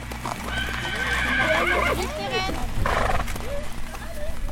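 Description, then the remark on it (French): A trail horse named Ouxmal whinnies and snorts while its hooves clip-clop in a steady walking rhythm on a ride in Ille-et-Vilaine, with low rumbling ambience and a voice speaking over it. “On prend la route avec Ouxmal, son cheval de randonnée.”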